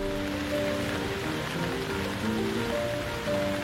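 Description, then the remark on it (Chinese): Rain pours down in a steady, even hiss that never lets up, with soft, sustained low tones shifting in pitch beneath it, like gentle background music. “我等雨小一点，先做做别的事。”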